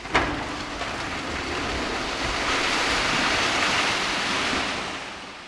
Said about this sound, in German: Das ist eine Baustelle ein paar Schritte von meiner Haustür entfernt. Wird da was abgerissen? Ja, ein ehemaliges Firmengebäude.